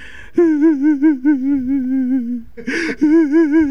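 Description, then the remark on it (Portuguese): A voice imitates a woman's continuous sobbing, a high wavering wail that trembles steadily. It breaks briefly for a sharp breathy gasp and then resumes, loud. “Aquele choro que era assim.”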